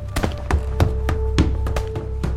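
A first-floor landing door being kicked in: a quick series of heavy thuds, roughly eight blows at an uneven pace, over a steady low hum.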